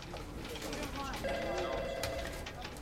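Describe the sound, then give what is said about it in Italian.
A mobile phone rings with a steady electronic tone that holds for about a second, heard over a dense, noisy background with some indistinct voices, in the Miami office of an advertising agency in January 2004. “Nell'ufficio di Miami dell'agenzia pubblicitaria Crispin Porter Bogoski squilla il cellulare”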